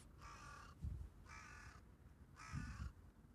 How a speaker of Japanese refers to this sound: カラスさんが挨拶をしていますマイクを向けたら黙ってしまいました今4羽のカラスさんがいますね見守ってくれています